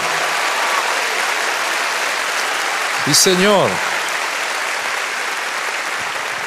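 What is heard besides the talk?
audience applause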